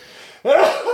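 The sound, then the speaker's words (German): A single sneeze bursts out suddenly after a brief quiet moment, loud, with a sharp onset and a breathy, voiced tail. “Gesundheit. nochmal.”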